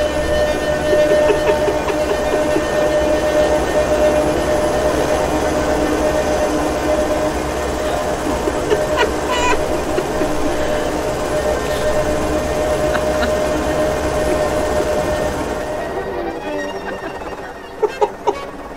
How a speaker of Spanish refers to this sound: Entonces, escuchen cómo suena el cuarteto de cuerdas para helicóptero.